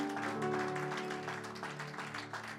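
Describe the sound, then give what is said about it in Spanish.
A crowd claps steadily throughout as applause to the Lord, a dense, continuous patter of many hands over sustained musical tones, fairly loud, with no break in the applause. “Un aplauso al Señor.”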